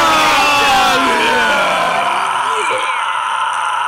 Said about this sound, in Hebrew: הוא עדיין עושה את זה, הוא מתקרב אה, ל... בעצם, בעצם זה הדבר הכי ארוך שמעתי לכם, שהוא עדיין צועק ברקע, כשאני מדבר, הוא עדיין עושה את זה, אנחנו הולכים לסקר את הצרכה הארוכה ביותר בעולם שאי פעם